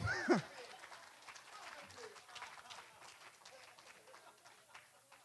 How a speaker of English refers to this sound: Give a hand clap for our pig.